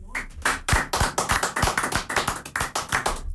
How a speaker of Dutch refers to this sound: Ja, toch wel even een applausje.